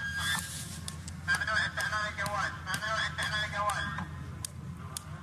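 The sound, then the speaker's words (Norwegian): Sharp whip lashes crack out several times at uneven intervals, each a quick slap-like snap, striking a Saudi blogger's back and thighs in a flogging, over a steady murmur of a crowd with voices talking in the background. “Dette er lyden av piskeslagene mot Raif Badawis rygg og lår.”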